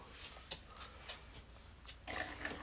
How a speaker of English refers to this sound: I'm pouring up the cups right now. He's filling them up.